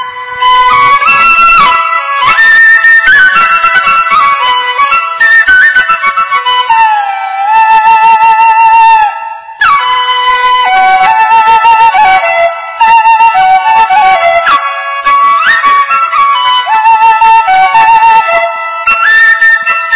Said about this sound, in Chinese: 在今天节目的进行当中呢，我们为大家穿插的这一些呢，都是笛子的一些名曲。比如说，现在您所听到的就是笛子曲《小放牛》，我们来听个片段。